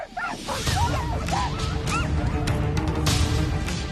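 A team of sled dogs pulling tourists barks and yelps excitedly after a midday rest, many voices overlapping over a constant rumbling background, with sharp clattering knocks as the brake is released and the sled starts moving.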